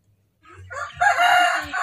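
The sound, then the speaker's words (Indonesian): A KUB chicken rooster in a clean, dry coop crows once, loud, its harmonic call rising after a short buildup and holding strongly to the end, with no one speaking over it. “Ini ayam, ini ayam KUB ini sebetulnya ini ini satu kelompok dengan yang tadi yang sakit, iya.”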